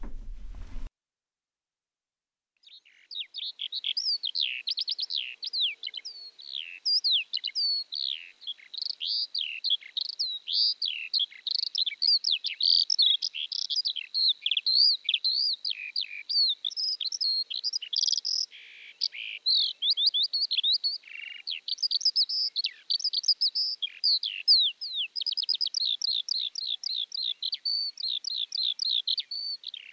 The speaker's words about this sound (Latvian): Tā bija lauku cīruļa dziesma no albuma Desmit visbiežāk līdzstojošās putnu sugas Latvijā.